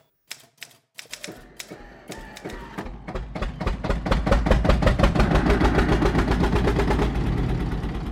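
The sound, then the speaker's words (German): Typewriter keys clack loudly, starting with a few scattered strikes and quickly building into a fast, steady rattle of typing over a low mechanical rumble. No voices. “Ich musste eine Filzplatte unter die Maschine legen, einen Schalldämpfer.”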